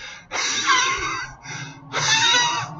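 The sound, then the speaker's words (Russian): A voice imitates labored, wheezing bronchial breathing, as in shortness of breath when air struggles to leave the lungs: three strained, whistling exhalations, fairly loud, with brief pauses between them and no words spoken. “вот такого типа, да, со свистом, как будто очень тяжело выдохнуть, да, так называемое бронхиальное дыхание, со свистом, когда легким очень трудно, воздух очень трудно покинуть легкие, потому что там вязкая мокрота,”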